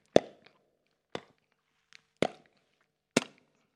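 Four sharp, wet-sounding pops of grass bubbles bursting, popped by a herd of cows chewing grass, spaced about a second apart, each with a quick decay, plus a few faint little clicks between them and no voices.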